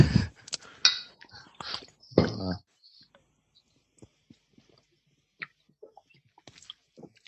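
Glasses of ginger beer clink together in a toast, a few bright clinks and rattles packed into the first two seconds, followed by soft, scattered taps and clicks.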